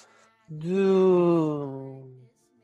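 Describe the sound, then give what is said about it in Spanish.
A single voice imitates a car passing by to show the Doppler effect: a sustained nasal vocal tone that swells and then slides steadily downward in pitch for about two seconds, heard alone. “El efecto Doppler es cuando, eh, mira, a ver, por ejemplo, pasa un auto y ¿Mm? el auto, y el auto hace este sonido así como.”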